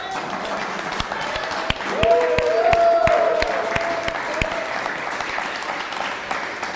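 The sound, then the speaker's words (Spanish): The Cami community, present in person at a Sukkot Shabbat celebration, bursts into steady applause, a dense wash of clapping with a few sharper individual claps, while rising cheers and whoops ring out over it for a couple of seconds. “Que se escuche la comunidad de Cami, que está aquí físicamente, un fuerte aplauso, un hurra, un aleluya, qué sé yo, hombre.”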